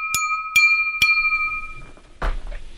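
A glass bottle is struck three times in an even rhythm, each clink ringing out with a bright, sustained tone, followed by a softer clatter and some rustling.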